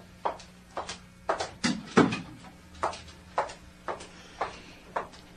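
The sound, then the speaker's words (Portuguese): A door is shut with a dull thud in the middle of a steady run of soft, evenly spaced knocks or steps, moderately quiet, with no one talking. “Entre e feche a porta.”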